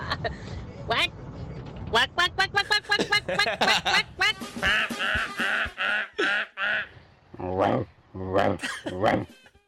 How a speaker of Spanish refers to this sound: Ah, pues sí, un pato, un pato. Es cierto, un pato, un pato, es cierto.